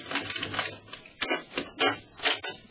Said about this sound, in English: walked up the two flights to my apartment, unlocked the door.